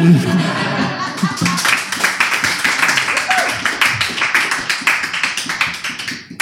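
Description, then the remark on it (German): A live audience applauds after being welcomed to a show and invited to clap. It is a dense stream of many hands clapping that holds steady for several seconds, with a little voice and laughter at the start before the clapping takes over. “ähm, Ihr dürft klatschen, wenn ihr wollt.”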